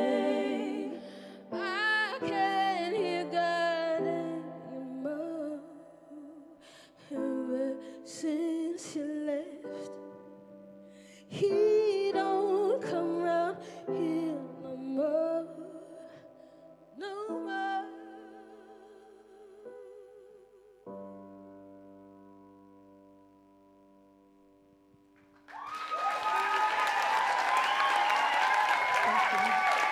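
A live musical performance recorded for Chapel Summer Sessions, with sung melody over sustained chords, fades out, followed by a burst of loud, steady applause from an audience filling the final few seconds.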